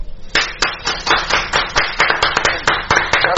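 A group of colleagues clap for Don Patricio, producing a dense, continuous patter of sharp hand claps at a fairly loud level, with no talking over it.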